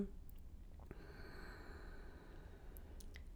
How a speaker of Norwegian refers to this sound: Så pust dypt inn gjennom nesen og ut gjennom munnen. Inn gjennom nesen.